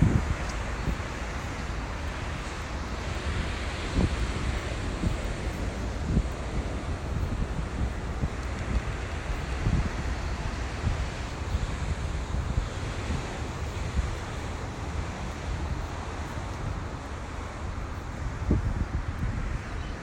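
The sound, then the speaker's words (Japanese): Steady roar of ocean surf washing onto Bondi Beach in Sydney on a cloudy, humid day of about 21 degrees, continuous and fairly loud, with gusts of wind buffeting the microphone and occasional low thumps as waves break. “今ですねボンダイビーチのところに来てますえー、ちょっとね波の音があればちょっとは BGM にいいかなと思ってちょっとビーチに来てねライブしてます”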